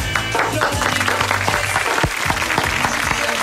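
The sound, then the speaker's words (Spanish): A small group bursts into steady clapping to celebrate the good news that it rained in Córdoba. The clapping is dense and fills the whole stretch, with faint voices murmuring underneath. “Ah, hay una muy buena noticia y es para aplaudir.”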